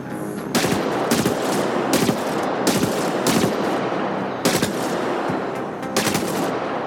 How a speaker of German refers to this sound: Ihr hört gleich als erstes das Maschinengewehr Enforcer, welches Energieschaden macht, und danach den Dealbreaker, der einfach ordentlich Wumms macht, und beides hört man auch sehr gut.